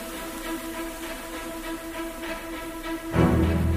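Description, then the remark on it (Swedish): A dense, steady, deafening drone of many honeybees buzzing around the hives of an apiary, holding a constant hum before swelling louder near the end. “Undrar vilken kupa det är som låter mest egentligen.”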